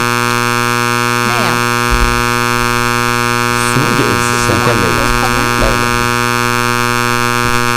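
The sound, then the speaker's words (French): A loud, continuous fire alarm buzz at Lucam drones steadily throughout, with people talking excitedly over it. “C'est l'alarme d'incendie de, de, oh de Lucam.”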